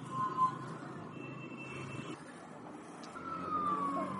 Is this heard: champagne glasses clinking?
no